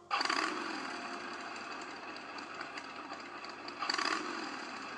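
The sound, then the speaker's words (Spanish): A motorcycle engine runs steadily and fairly loud throughout as a couple rides away on it, revving up sharply at the start and again near the end, with a rough, buzzing drone in between. “El propio Ed Warren los expulsó del lugar y vio cómo la pareja se alejaba en moto.”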